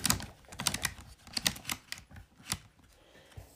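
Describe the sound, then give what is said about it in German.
Crisp mechanical ratcheting as a typewriter platen knob is turned to feed paper until it is clamped in almost to the edge: a run of quick, uneven clicks and light rattles, denser at first, then thinning out, with no voices. “Und jetzt ähm, dreht man an den Rädchen,”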